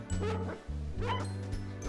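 A dog barks several times in quick succession, sharp yapping bursts over a steady low humming bed underneath, clear with no talking.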